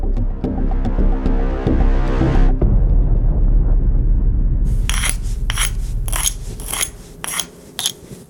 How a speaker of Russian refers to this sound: Приблизительно так звучит ложка, когда ей трешь по камню и штукатурке.